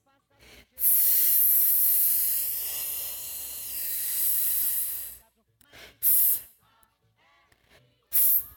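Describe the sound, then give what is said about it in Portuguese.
A voice makes the sound of the letter F: a long, steady breathy "fff" hiss lasting several seconds, followed by two short, sharp "f" puffs after brief pauses, fairly loud. “letra do dia é o F. Que som que faz?”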